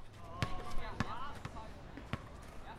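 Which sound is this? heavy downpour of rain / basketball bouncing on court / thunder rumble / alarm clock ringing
basketball bouncing on court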